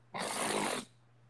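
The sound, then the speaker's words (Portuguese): One loud, breathy exhale lasting under a second from someone losing their breath: a rough, airy rush like panting hard after exertion, then it cuts off to quiet. “Tô perdendo a coisa, minha respiração.”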